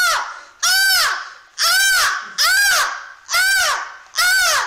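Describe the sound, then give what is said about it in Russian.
A person imitates a seagull at a paying viewer's request, crying out five loud, harsh calls in a steady rhythm, each rising and falling in pitch, with short pauses between. “или спародировать чайку, то есть крикнуть «чаечкой».”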